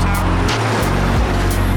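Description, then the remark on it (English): A loud car engine sound effect revs and surges, its pitch rising and dropping as the car accelerates and brakes, with a steady rumbling drone throughout and no talking. “Now hit the gas, hit the brakes, not swerve.”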